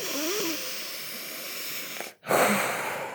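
Steady, airy, deliberate breathing through one nostril while the other nostril is held shut, a long hissing inhale or exhale through the nose, then a brief pause and a second breath, with no talking.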